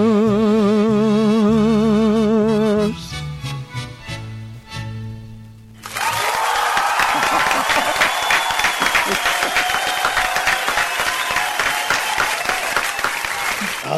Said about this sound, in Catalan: ha quins aplaudiments, eh? Escolta, com si estiguessis en un concert, eh?